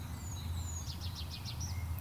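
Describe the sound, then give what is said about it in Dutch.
A small, insect-eating male songbird with a pointed beak sings in sunshine, marking its territory and calling to females: a quick run of about six high, thin, repeated notes after a couple of drawn-out whistles, set against a steady low outdoor rumble with no talking. “En dan als hij zingt, kan je hem even zien zingen.”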